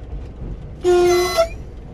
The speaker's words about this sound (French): Alors là, vous avez vu, j'ai actionné le klaxon. J'avais un panneau S sur ma gauche. Le S veut dire sifflet. C'était ça qui prévalait à l'époque de la vapeur. Aujourd'hui, c'est le klaxon.